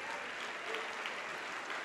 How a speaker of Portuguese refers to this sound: Vamos aplaudir mais.